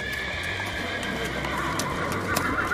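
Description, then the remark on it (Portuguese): Horses neigh and whinny loudly while hooves clip-clop in a steady, uneven patter, with no voices, suggesting several animals on the move. “alguns dias depois, o, os cavalos de vocês chegam no reino.”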